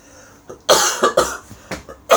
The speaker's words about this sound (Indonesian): Batuk mulu lu.